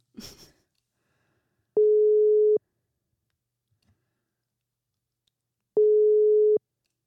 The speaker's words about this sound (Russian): Такое ощущение было, что ты куда-то ушла, потому что три гудка, мы начали волноваться.